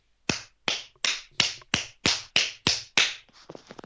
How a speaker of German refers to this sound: Ich habe gerade geklatscht, falls man es nicht gehört hat.